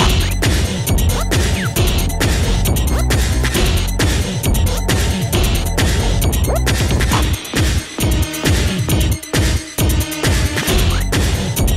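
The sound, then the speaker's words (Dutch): A loud, driving early-1990s Belgian techno track of the style known as bumper-car music, with a steady pounding kick and dense, buzzing synth layers, played continuously without vocals, briefly thinning out so the beats stand out. “En voor mensen die daar totaal niks van kennen, dit is botsautomuziek muziek.”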